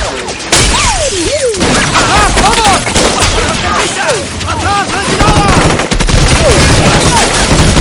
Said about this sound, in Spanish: Otro igual se coloca en paralelo y varios hombres armados se asoman por las ventanas. Avanzan hacia la barrera mientras disparan a los agentes que intentan defenderse.